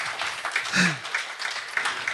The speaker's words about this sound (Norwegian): Ja, den skal vi ha applaus for.